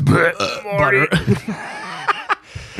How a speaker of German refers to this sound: Ich fange schon wieder an, im Satz zu rülpsen, ey.